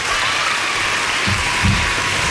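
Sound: applause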